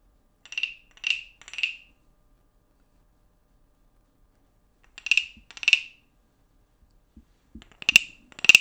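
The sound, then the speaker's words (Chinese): A hand-held wooden frog instrument, resembling a wooden fish (muyu), is scraped to imitate croaking: three rasping, ratchety croaks, a long pause, two more, then a few quicker, sharper ones. Clear and fairly loud, with no voices. “他手上呢就是一个木质，有点像木鱼的一个青蛙，大家听听看。”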